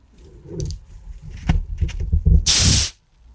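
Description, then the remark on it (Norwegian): Some handling clicks and rustling, then a loud, sharp burst of hissing as an ice-cold can of Cola Zero is cracked open in a motorhome, the fizzing rush lasting about half a second before stopping abruptly. “Nei, det var da kullsyre spretter. Jeg åpner iskald Cola Zero.”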